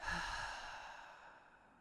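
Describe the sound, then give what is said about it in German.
A single long, audible breath pushed out through the mouth after a deep inhale through the nose, as part of a breathing exercise, airy and fading gradually over almost two seconds like a deep sigh. No one speaks. “also, durch die Nase einatmen, ganz, ganz tief, sodass der Bauch richtig schön dick wird. Und dann durch den Mund auszuatmen.”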